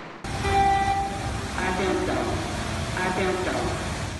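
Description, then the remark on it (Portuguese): A community warning siren for heavy rain in the Rocinha community, Rio de Janeiro, sounds over a loud, constant rumbling din, alerting residents. Its tone rises and falls in two wavering swells, with steadier humming pitches underneath. “tem o acionamento hoje dessas sirenes preventivamente alertando os moradores”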